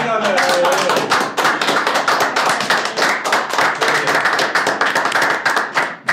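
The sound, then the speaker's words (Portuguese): A steady round of applause, many hands clapping quickly and continuously for several seconds, with a brief voice murmuring at the very start. “Uma salva de palmas.”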